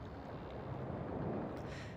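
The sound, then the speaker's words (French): A sailing ship heading west across the sea, carried by the trade winds, pushes through the waves, with a steady rush of wind and water churning continuously along the hull. No voices, just dense, even noise. “Portée par le vent des alizés, le chemin vers les Indes s'ouvre alors que la poupe de nos navires fend les vagues. L'écume danse, les voiles claquent, les cordages chantent, le monde s'ouvre à nous.”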